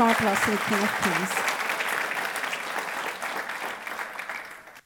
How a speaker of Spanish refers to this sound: Dele aplauso al Rey de Reyes.